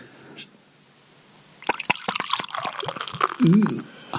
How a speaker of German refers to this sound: Aber das Einschenkgeräusch war schön.